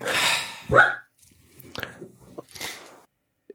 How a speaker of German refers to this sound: Ähm, ja, ich, ich, äh, pff, wird abgelenkt von Hunden.